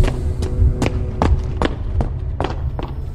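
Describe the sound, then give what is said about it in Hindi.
Quick, evenly spaced footfalls of a man running away very fast pound along at a running pace, about ten sharp thuds over a steady low rumble, moderately loud, with no voices. “वो आदमी बहुत तेज वहां से भाग रहा था”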